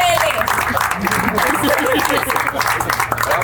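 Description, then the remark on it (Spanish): A crowd applauds steadily, a dense wash of many hands clapping at once, mixed with overlapping voices and cheers from the audience, fairly loud and sustained throughout, applauding the team serving the cocktails at an event. “quiero que le regalemos un aplauso a Meli, a Frida, al equipo”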